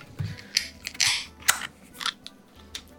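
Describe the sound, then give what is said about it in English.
A can of hazy beer being cracked open: a few sharp metallic clicks and snaps, with a brief bright fizzing hiss in the middle. No one speaks. “We'll just crack them open.”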